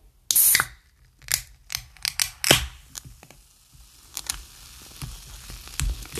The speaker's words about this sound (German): Bei Kohlensäuregetränke ist natürlich ein bisschen blöd, so. Ähm, aber wenn man da kurz wartet, so mäßig und okay, so viel Kohlensäure hat sich da auch nicht aufgebaut, würde ich mal ganz kurz sagen, wir machen die Dose auf.